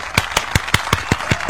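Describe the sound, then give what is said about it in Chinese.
Steady hand clapping, about eight sharp claps in an even, fairly quick rhythm, like a single person applauding, with no voices. “他说我失恋了这件事儿，说句实话，呃，送你一个掌声吧。”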